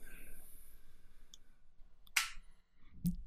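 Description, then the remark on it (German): Two sharp mechanical clicks from a camera shutter and flash: a bright snapping burst, then a second, duller click about a second later. “Ich schalte auch unmittelbar den Blitz wieder aus. Den Blitz wieder aus. Oh, das, Geräusch, das Geräusch allein, hört mal.”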